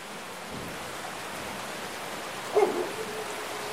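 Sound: stream water flowing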